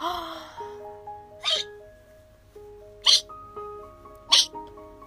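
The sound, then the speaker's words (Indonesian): Three sharp, loud hiccups from a whale pop out at uneven intervals, each a quick burst standing out over a soft, steady backdrop of gentle musical tones. “Pak Pius cegukan, matanya melalak terbuka. Dia kecegukan sekali lagi.”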